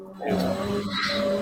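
A vacuum cleaner drones steadily in the background, a continuous whirring hum with a whiny motor tone that holds level throughout, with no one talking over it.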